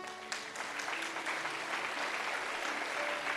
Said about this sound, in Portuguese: Aplaude a Deus por isso.